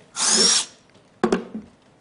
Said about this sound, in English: And I said, it's like when you're drilling through a wall to hang something in your apartment, right? There's that moment when the drill first punctures through the wall, and there's this plunge, right?